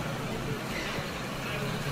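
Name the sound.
busy street traffic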